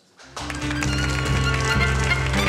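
Audience applause bursts in after a brief quiet moment and continues as a dense, steady wash of clapping, with a low sustained tone humming beneath it.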